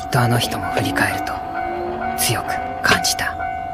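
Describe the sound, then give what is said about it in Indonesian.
A train rumbles past a railway crossing, with a steady ringing tone held throughout and bursts of clattering noise, while a voice talks over it. “wanita itu pun berbalik namun tiba-tiba kereta api melintas menghalangi pandangan mereka.”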